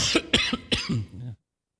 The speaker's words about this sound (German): Ich muss mal husten, kannst du mal ganz kurz runterdrehen?